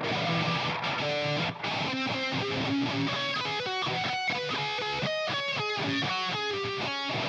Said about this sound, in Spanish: Se escucha bien culero. Yo creo que le tengo que meter más distorsión. Sí, le voy a meter más distorsión.